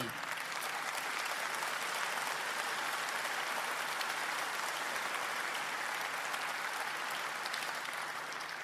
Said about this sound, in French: Nous applaudissons aussi ceux qui les rejoignent qui les rejoignent par la bravoure, ces citoyens d'exception, comme ce fut le cas à Annecy, notamment avec Henri. Merci à nos héros.